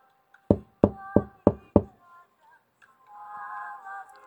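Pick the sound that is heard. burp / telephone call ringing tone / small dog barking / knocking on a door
knocking on a door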